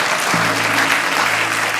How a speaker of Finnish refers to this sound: Aamen. Annetaan isot aplodit Jeesukselle tässä hetkessä.